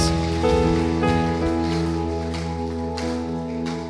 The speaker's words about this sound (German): Lass uns Gott doch mal einen Applaus geben, ihm die Ehre geben für das, wer er ist. Das, was er in unserem Leben getan hat.